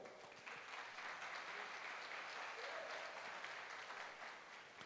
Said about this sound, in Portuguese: aplauda Jesus que é bom.